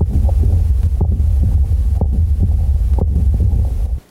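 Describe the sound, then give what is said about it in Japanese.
A to-and-fro heart murmur through a stethoscope, from combined aortic valve regurgitation and stenosis: a systolic ejection murmur and an early diastolic murmur, with steady heartbeats and a continuous whooshing rumble filling the gaps between beats, loud and alone for about four seconds. “それから大動脈弁閉鎖不全と狭窄などを合併すると収縮期の屈出性雑音と拡張早期雑音が両方聞こえますえこのような雑音は to and fro マーマーというふうに呼びます。”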